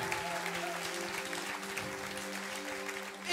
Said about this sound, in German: Yes, lasst uns Gott einen Applaus geben.